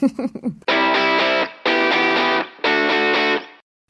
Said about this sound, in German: kurz in deinen Song … von … oh, reinhören